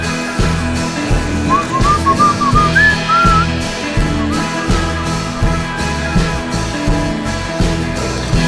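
A whistled melody glides over a full, loud band backing with steady drums and bass in an Israeli song, the tune rising and falling in short phrases through the middle of the song.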